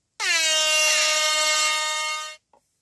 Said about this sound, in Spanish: Nos merecemos unas fanfarrias.